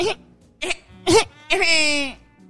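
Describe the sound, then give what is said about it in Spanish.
A baby cries in short, choppy bursts, three quick wails followed by a longer, louder one that trails off. The cry is clear and alone, with no talking. “Necesitamos el sonido del bebé llorando. Para ponerlo aquí.”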